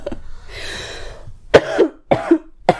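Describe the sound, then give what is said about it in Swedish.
A few harsh coughs in quick succession, preceded by a breathy inhale, with short pauses between each burst; no speech. “Det här har ju inte hjälpt min hosta.”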